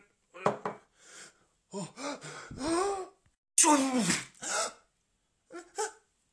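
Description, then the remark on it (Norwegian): A sharp, loud sneeze into another person's face bursts out midway, surrounded by several breathy gasps and strained vocal sounds, with short pauses between the bursts. “Du kan ikke nyse henne i ansiktet!”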